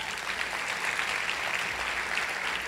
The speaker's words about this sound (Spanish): En el nombre de Jesús, dale un fuerte aplauso ahí al Señor.